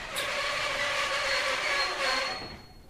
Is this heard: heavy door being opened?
no